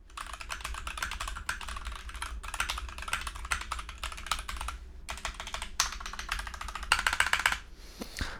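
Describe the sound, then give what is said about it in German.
Rapid, steady keyboard typing on a large desk mat, with dense clicky keystrokes running continuously and a brief flurry of louder taps near the end, no talking. “und auf, auf der Matte.”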